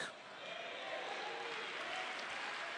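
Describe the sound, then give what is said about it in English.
A church audience applauds the Lord during a sermon, a dense wash of clapping hands that holds at an even, fairly loud level throughout, with a faint murmur of voices underneath. “Give the Lord another round of applause here today and shout unto the Lord with a voice of triumph.”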